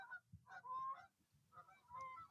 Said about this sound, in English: Some geese just flew over.